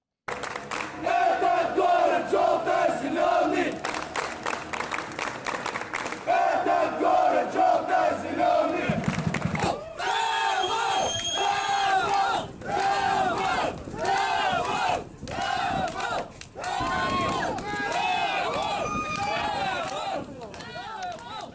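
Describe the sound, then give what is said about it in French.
A large crowd of FC Tobol football supporters chants loudly and rhythmically in a stadium in Kostanay, Kazakhstan, voices swelling together in sustained, echoing shouts that rise and fall over about twenty seconds. “Alors on va se plonger un peu plus hein, dans l'ambiance de Costanaï, de son club, ton club Jérémy, le FC Tobol”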